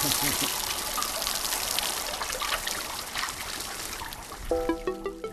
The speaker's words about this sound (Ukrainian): Так миються страуси. У спеку працівники поливають їх водою зі шланги.